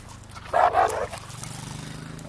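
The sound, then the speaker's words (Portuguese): A dog gives two quick barks in succession, then falls silent over a steady low background hum. “Então assim, isso um cachorro, vamos atravessar a torre.”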